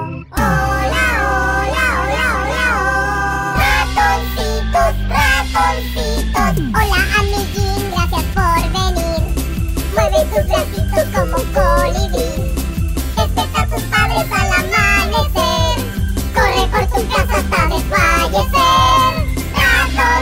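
A children's song plays loud and steady throughout, with high, sing-song vocals riding over a bouncy, full instrumental backing.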